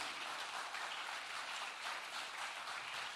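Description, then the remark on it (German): An audience claps steadily, giving Jesus a big round of applause, producing a dense, continuous wash of applause that holds at an even level for a few seconds with no voices. “Wollen wir Jesus mal einen großen Applaus geben?”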